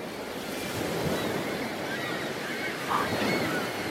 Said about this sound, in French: Mais, Papouchka, j'entends rien par le bruit des vagues.